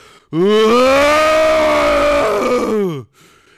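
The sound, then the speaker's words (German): A man's voice imitates a bear's roar: one loud, sustained, growling bellow lasting nearly three seconds, rising sharply at the start and tapering off at the end, with no other sounds. “Also wahrscheinlich hat er, einen, er hat einfach nur gebrüllt, wie ein Bär.”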